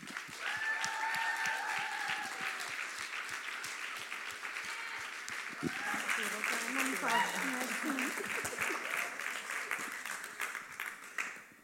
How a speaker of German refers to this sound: Und ich schätze sehr, dass du heute hier bist und lasst sie uns mit einem herzlichen Applaus jetzt begrüßen auf der Bühne.